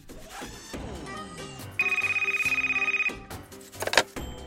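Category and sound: signal or alarm, telephone ringing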